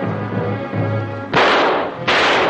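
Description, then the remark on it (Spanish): Two loud, sharp gunshots, fired by the nephew at Tonet, who falls badly wounded onto his boat, go off about a second apart, each leaving a lingering, hissing echo, over a low rumbling background with no talking. “El sobrino dispara a Tonet, el cual cae malherido sobre su barca.”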